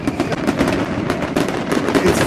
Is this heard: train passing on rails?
no